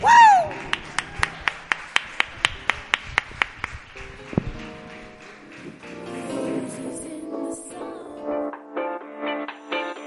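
About a dozen sharp, evenly spaced claps ring out in a steady, unhurried rhythm for a few seconds, then fade as voices and other sounds take over.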